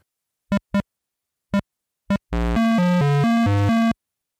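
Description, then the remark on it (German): Four short, separate electronic beeps spaced irregularly, then a rapid run of harsh, buzzy square-wave tones jumping between pitches for about a second and a half: a random tone sequence from a PC speaker in a computer game. “Es ist auf jeden Fall eine zufällige Klangfolge und das klingt so.”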